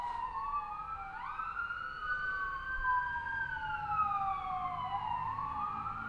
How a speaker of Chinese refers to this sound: 嗯，现在有救护车，先等救护车过吧。